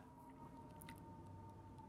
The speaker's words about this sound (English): There's a siren. Gotta love those.